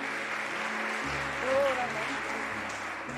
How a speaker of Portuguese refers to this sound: Pode aplaudir a Jesus porque ele é digno.